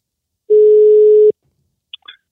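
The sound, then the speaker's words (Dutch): A loud, steady telephone dial tone before a call is placed, sounding alone for under a second as a single unbroken low hum, then cutting off; after a short silence come a few faint, brief blips. “Dus we gaan hem gewoon eens bellen.”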